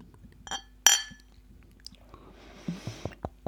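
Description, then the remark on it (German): Two glass bottles of ginger ale clink together in a bright, ringing toast, followed by soft handling noises and a few quieter knocks and clatters. “Prost. Prost.”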